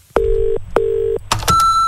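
Two steady, evenly spaced telephone tones, each lasting under half a second, are followed by a few clicks and a higher sustained beep as a listener calls the Small Business Big Marketing Hotline. No one speaks.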